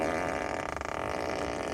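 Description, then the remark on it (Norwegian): A fart sound effect plays from a car seat, a continuous buzzy, sputtering blast with a rattling flutter in the middle, lasting nearly two seconds at steady, fairly loud volume with no talking. “Å sitte på i en bil hvor det kommer prompelyd fra setet ditt.”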